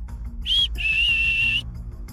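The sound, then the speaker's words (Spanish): A person whistles a soft, high tune imitating a whistle: one short note, a brief pause, then a longer, steady held note that ends abruptly. No talking. “en ese momento escuchó muy suavecito el siguiente silbido. Era algo así como...”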